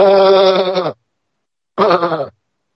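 A sheep bleats twice, a long wavering baa followed after a short pause by a shorter one, loud and clear with no voices around.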